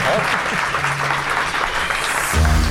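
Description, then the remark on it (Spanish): An audience applauds steadily, a dense wash of many hands clapping at once. Faint voices come through beneath it, and the clapping swells louder near the end. The audience applauds the presenter's colleagues as the show Mindfax starts. “debéis aplaudir a mis compañeros, que se lo han ganado, hombre.”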